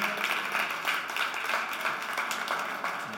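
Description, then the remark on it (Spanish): Sustained applause from a crowd for the young people, a dense crackle of many hands clapping at once with no pause, holding a steady, full level throughout without any voices standing out. “Hay un aplauso fuerte a los jóvenes.”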